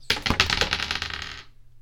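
A quick clattering rattle of dice tumbling across a hard tabletop for an opposed strength roll in a tabletop role-playing game, a burst of sharp clicks that thins out and settles within about a second and a half, with no voices.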